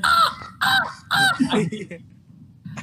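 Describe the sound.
A voice imitates a crow with three loud, harsh caws in quick succession, each a nasal squawk, followed by a short trailing vocal sound and a brief noise at the end.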